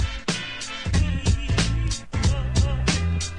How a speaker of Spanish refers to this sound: Ahí está, no me deja pedir mucho, así que vamos a escuchar un poco el primer tema. Vale, vale. Y esto suena así.